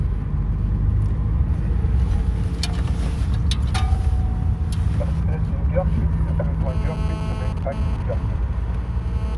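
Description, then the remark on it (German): Cars at a women's cycling race rumble past on a road in Görkwitz in a steady, heavy low drone, fairly loud, with brief clicks, faint tones and indistinct background voices mixed in. “Man sieht ja als Zuschauer bei so einem Rennen wahrscheinlich mehr Autos als Fahrerinnen.”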